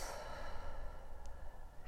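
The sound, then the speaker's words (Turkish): A single long, airy exhale through the mouth after a breath in through the nose, soft, a steady breathy rush that fades out over about two seconds with no talking. “Ve ağzından boşalt.”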